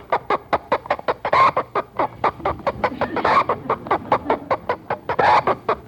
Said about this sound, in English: That would be the chickens, uh, and they are uh, growing, or I mean they're... The uh, what now? The what? They're, they're cackling.